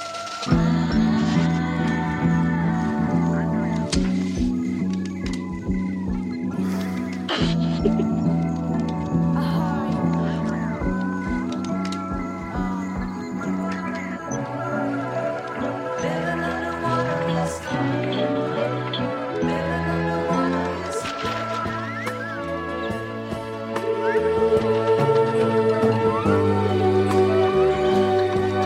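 A continuous, full-sounding music passage with a xylophone picking out melodic notes over layered instruments and shifting bass lines, steady and fairly loud throughout, growing slightly fuller near the end.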